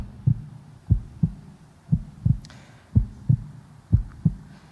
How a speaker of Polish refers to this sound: Bicie serca jest niezwykłe.